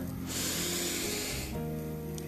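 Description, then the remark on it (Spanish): A long, airy deep inhale during a breathing exercise, lasting over a second, a steady breathy hiss, with soft sustained musical tones continuing underneath and after it. “Toma una respiración profunda, inhala”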